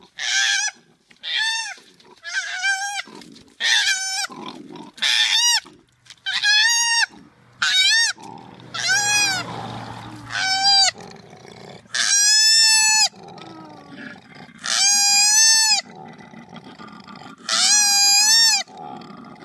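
A koala bellows, a steady run of about a dozen loud, harsh braying calls with a brief low rumbling snore midway, no voices.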